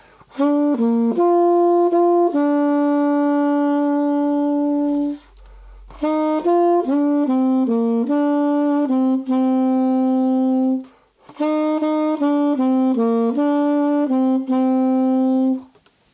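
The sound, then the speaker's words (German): A solo melody is played three times in short phrases, each with quick notes stepping up to an upper neighbor note and back before settling on a long held tone, varying two words set on the same pitch in the second part of the melody. Clear and fairly loud, with no talking. “Also ich breche aus und spiele eine obere oder eine untere Wechselnote”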